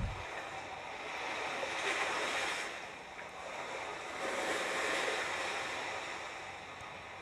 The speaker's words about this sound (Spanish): sintiendo como si hubieran olas muy cerca, como si el mar se hubiese embravecido, o si me estuviera llamando para que lo vaya a ver para que me vaya a limpiar en él.